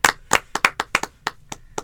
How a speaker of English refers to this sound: Well, thank you. I think we can give him a small clap.